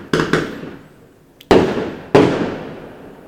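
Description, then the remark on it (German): New Year's Eve fireworks and firecrackers going off: a quick double crack, a small pop, then two more loud bangs, each followed by a long rumbling decay. No one speaks. “Auf jeden Fall äh, ist immer noch Feuerwerk im Hintergrund, obwohl ich weiterreden möchte.”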